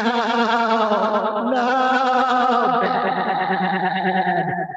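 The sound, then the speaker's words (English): A female goat bleats loudly in one long, quavering cry lasting several seconds, its nasal tone wobbling with a shaky vibrato and shifting pitch slightly partway through. “The and goat's owner was identified and the animal was returned home. And a whole while, all you heard her say was, no, no.”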